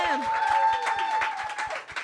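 An audience breaks into applause, a dense, steady wash of clapping with a regular rhythmic beat running through it and some sustained tonal sound layered on top.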